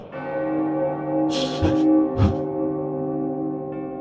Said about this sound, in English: As the ghostly bell tolled through the facility, Jeffrey shivered